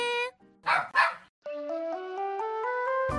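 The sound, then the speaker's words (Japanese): Bon-chan, an eight-year-old curly-coated dog, gives two quick, sharp barks, framed by a brief electronic tone before and a stepped, rising musical jingle afterward on RKB Radio Fukuoka's Dog Morning program. “ボンちゃん8歳なんですけどすごいこう毛の巻きがしっかりあってねいいですよねだんだんやっぱりこう巻きが弱くなってきたりとか毛が退色してきたりとかしますけどボンちゃんねまだまだ若々しい元気なワンちゃんです”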